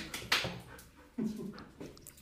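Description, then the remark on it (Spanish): A female dog makes a few brief whimpering, yelping sounds with quiet shuffling between them as it comes into the room. “Es que entró mi perra.”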